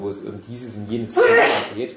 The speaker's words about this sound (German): Gesundheit. Gesundheit.